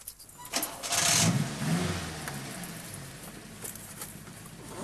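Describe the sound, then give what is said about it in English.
A car engine cranks and catches, rising to a loud burst before settling into a steady, rumbling idle. No one speaks. “Uh, uh, uh, now try it with the engine. Uh, start the engine and try to put it in first gear.”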